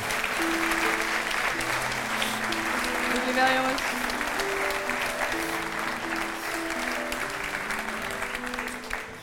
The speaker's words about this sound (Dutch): Applaus, mag wel.